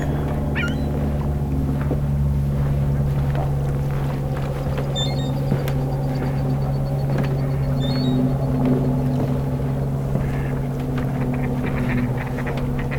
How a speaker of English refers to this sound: I pull up the recorder, and here shows up an airplane right then. It starts circling.